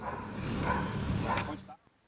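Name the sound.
sniffer dog barking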